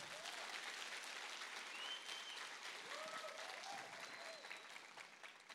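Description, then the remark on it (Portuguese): A church audience applauds a man, a steady dense wash of clapping that fills the whole stretch, holds level and eases off slightly at the end, with a few faint voices and whoops rising over it. “Dá um aplauso para ele, ele é bom.”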